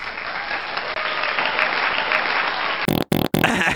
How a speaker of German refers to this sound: Applaus.